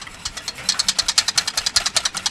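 A motorized kitchen mixer whirs steadily, beating a small coffee-cup amount with two tablespoons of powdered sugar until very fluffy. Its beaters produce a fast, regular pulsing rattle with a bright, buzzy upper edge and no talking over it.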